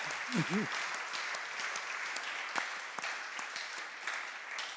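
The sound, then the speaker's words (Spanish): A church audience claps steadily for Jesus during a sermon, a dense wash of many hands with sharp individual claps standing out, holding an even level throughout. A brief voiced exclamation rises early on. “¿Alguien le puede un aplauso a Jesús?”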